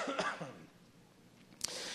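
A single short, raspy cough from a speaker recovering from an illness, followed by a quiet pause and a brief sharp click near the end.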